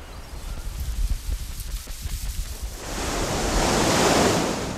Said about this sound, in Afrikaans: Dis te onstuimig vir hom om op sy skuit uit te gaan. En daar is ook 'n storm wat besig is om op te steek.